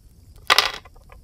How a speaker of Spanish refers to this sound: Esta tabla normalmente funciona con una baraja, pero como estoy usando dados tengo que tirar un D12 para el número y un D4 para el palo.